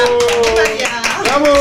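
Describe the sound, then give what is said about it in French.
A crowd claps in a steady, dense patter lasting the whole moment, with voices calling out and talking over the applause. “Les applaudissements s'il vous plaît.”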